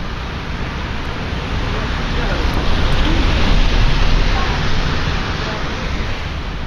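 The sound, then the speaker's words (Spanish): Heavy summer rain pours down torrentially in London in a dense, steady hiss, loud, swelling slightly in the middle and holding constant without any clear voices. “Estábamos en pleno verano en Londres, pero eh, caía torrencialmente el agua.”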